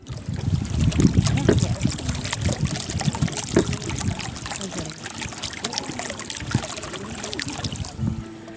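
Water trickles and splashes steadily from a fountain at the Alhambra in Granada, Spain, a continuous bubbling flow with small irregular drips and gurgles throughout, fairly even in loudness from start to finish.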